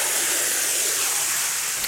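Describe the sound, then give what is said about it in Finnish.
A steady, broad rushing hiss of water pouring in as a garden pond basin planted with water lilies is filled, even and continuous throughout with no pauses, and no voices. “Mutta nyt täytetään tämä sopivasti.”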